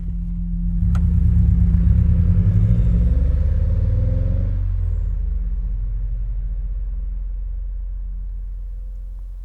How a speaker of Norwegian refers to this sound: Tiden renner ut, så de setter seg i den røde bilen og kjører fra stedet.